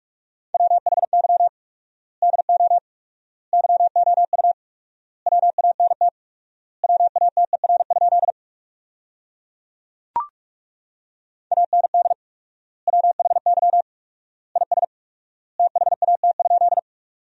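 Fast Morse code at 45 words per minute with 4x word spacing, sending sentences built from the top 200 words: a steady mid-pitched beeping tone keyed into rapid dits and dahs, sent in short bursts with long pauses between words, plus a single sharp click partway through.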